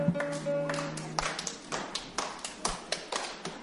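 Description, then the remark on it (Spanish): An audience claps along in a steady, even rhythm, about ten sharp claps following a sustained tonal sound that fades out at the start. “Que nos ayuden con sus palmas, ¿no?”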